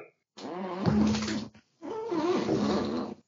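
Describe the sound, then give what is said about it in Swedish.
A chair creaks and squeaks in two drawn-out, wavering bursts, each about a second long, with a short pause between them and no talking. “Nej, och min stol som gnisslade något jävligt.”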